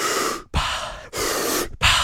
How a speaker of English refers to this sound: that deep, deep breathing in and out of your mouth or nose and mouth.